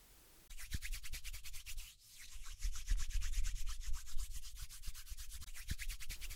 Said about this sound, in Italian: Ah, vabbè, non sarò Bear Grylls, ma vi mostrerò lo stesso come accendere un fuoco con solo due bastoncini.